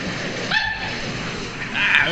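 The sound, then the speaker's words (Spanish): A voice imitates a dog's bark in two short yelping bursts, one early and a louder one near the end, sounding recorded, with a faint hiss underneath. “Pero eso es como un ladrido.”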